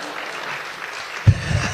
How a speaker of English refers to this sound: If you don't clap for that, I don't know what we're going to clap for.